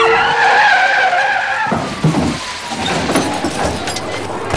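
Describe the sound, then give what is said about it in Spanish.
Car tires screech loudly for nearly two seconds as a speeding car meets a Renault 4 ahead on a street, then cut into a crunching crash as glass scatters across the street, followed by clattering and rattling debris, all loud. “El ruido fue ensordecedor. Los pedazos de vidrio se regaron por la calle.”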